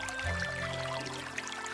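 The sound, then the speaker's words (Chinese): Spring water in Jinan gurgles and trickles steadily, a continuous bubbling wash of sound with bright splashy flecks, moderately loud and with no voices. “听，泉水叮咚作响；”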